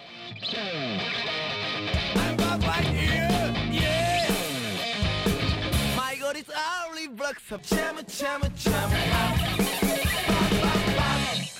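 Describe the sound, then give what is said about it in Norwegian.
A loud, energetic Japanese rock song plays on Radio Revolt's film programme Filmofil, with heavily distorted electric guitars and driving drums. It briefly thins out midway before crashing back in at full, dense volume. “Japansk rock der”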